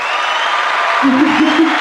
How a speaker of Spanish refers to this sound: Uh espera, un aplauso para mí.